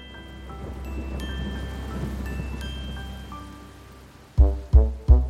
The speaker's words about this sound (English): Rain, rain, go away. Come again another day.